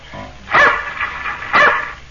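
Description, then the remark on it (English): Two sharp, loud barks from Tige, Buster Brown's dog, about a second apart, with a brief quieter yip between them and no talking. “That's my dog, Tige.”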